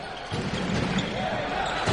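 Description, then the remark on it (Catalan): A basketball is dribbled on a court by player Andrius during a game, with steady repeated bounces thudding through a constant wash of arena crowd noise and indistinct voices. “Andrius amb la pilota. Continua votant.”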